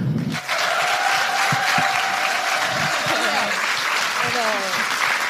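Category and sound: crowd, audience applause and cheering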